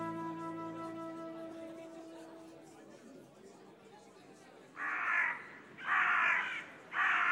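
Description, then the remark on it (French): Three loud, harsh crow caws ring out in the second half, each a broad raspy burst, following a fading sustained tonal hum with no talking. “Les corbeaux réunirent tous les oiseaux de la forêt et réussirent à convaincre les chats de dire à l'inconnu de retourner chez elle.”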